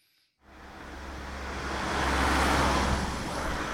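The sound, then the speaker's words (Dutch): Steady street noise in front of a restaurant entrance on the edge of a city, beside a huge park, rises after a brief quiet moment, with passing cars and a low engine rumble swelling and lingering. Nobody speaks. “We staan voor de deur bij Rizou. Daar gaan we zo eten. Het is een beetje aan de, aan de rand van de stad.”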